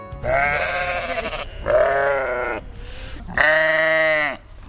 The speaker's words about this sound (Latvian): Tās aitas jums tādas komunikablas, vai ne? Pieradušas pie, pie apmeklētājiem.